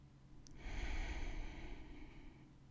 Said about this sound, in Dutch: Kijk maar of je tempo iets kan verhogen en blijf rustig doorademen. Je hoeft niks te forceren. Adem krachtig in en uit.